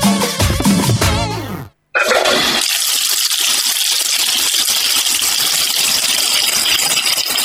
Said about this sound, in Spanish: Amor, ¿vos estás llenando la bañera? Sí, sí, cuidado que voy con los hielos.